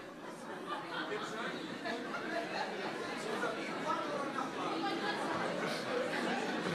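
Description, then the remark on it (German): An audience murmurs steadily as many people talk at once to their neighbours, as asked by the speaker, a dense overlapping babble with scattered light chuckles and laughs mixed in, holding an even level throughout. “Und sag mal bitte deinem Nachbarn, ich entscheide mich heute, kein Esel mehr zu sein.”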